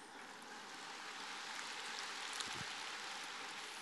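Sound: audience applause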